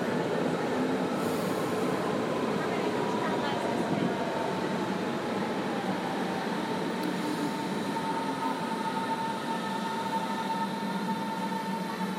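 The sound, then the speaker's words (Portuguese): An S1 or S2 train rumbles steadily into a station platform, its continuous low roar joined by faint high metallic wheel squeals, filling the whole stretch at a moderately loud level. “E vem mais um trem chegando.”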